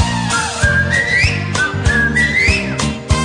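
A person whistles a bright, looping melody with rising and falling slides, riding over a steady thumping beat and backing instruments at a fairly loud, close level.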